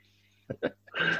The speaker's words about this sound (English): sorry, my dog's coughing. So uh, that's what you have to say. He's very quiet. I forgot he has got a bit of a cough just now. Probably the COVID.